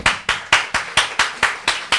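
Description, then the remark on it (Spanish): Steady, rhythmic clapping from a church audience after a Bible reading, about nine sharp claps in two seconds at an even beat, fairly loud, with no voices over it. “Un aplauso”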